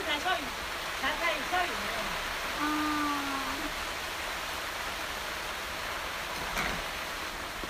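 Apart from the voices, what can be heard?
rain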